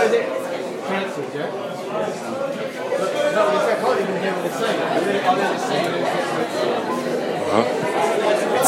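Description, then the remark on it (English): A dense murmur of many overlapping voices, steady and continuous throughout, like a large crowd talking all around with no single speaker standing out, as word spreads through the crowd that the band's performance has been cancelled. “All I'm hearing is hearsay from the rest of the crowd.”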